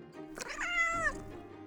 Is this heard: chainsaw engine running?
no